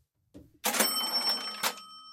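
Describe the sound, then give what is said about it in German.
A mechanical cash register clunks open with a drawer slide and rings a bright bell, with sustained metallic chime tones ringing out clearly, no one talking over it. “Da klingelt die Kasse.”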